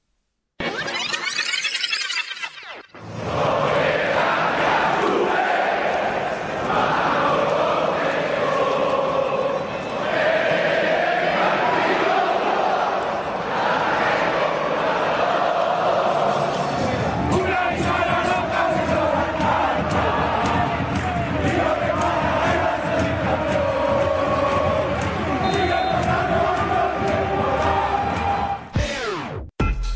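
A football stadium crowd inside La Rosaleda chants and roars continuously, a dense wall of many voices with rhythmic surges and sharper shouts breaking through, staying loud throughout before cutting off abruptly at the end.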